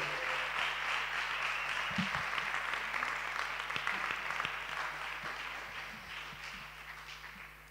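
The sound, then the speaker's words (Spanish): Sustained applause from an audience welcoming a pastor: a dense, steady wash of many hands clapping at once, loud and continuous throughout, easing off slightly toward the end, with no talking over it. “Pues vamos, con un fortísimo aplauso a la pastora”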